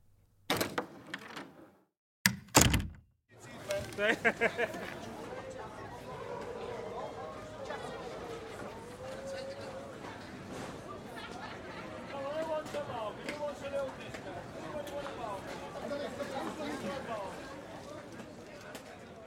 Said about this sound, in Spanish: Ven, vamos a la calle. Acompáñame. Salgamos y escuchemos un poco a estas personas reales en este mundo irreal.